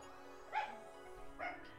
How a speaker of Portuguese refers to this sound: Gente, esse, esse cachorro quase me matou durante a gravação do episódio. É, sério, cada vez que eu contava alguma coisa muito assustadora, parece que ele latia.